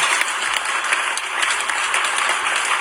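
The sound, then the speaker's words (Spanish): Steady, dense applause from a crowd, a continuous crackle of many hands clapping at an even loudness throughout, with no voices standing out. “Gracias por los aplausos. Pero que sigan.”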